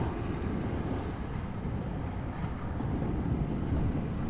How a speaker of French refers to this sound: Il est 23h30 et là ce soir j'enregistre un phénomène particulier qui est celui de la mer de nuit bien sûr. On entend les vagues qui roulent. Je suis à une centaine de mètres de la mer.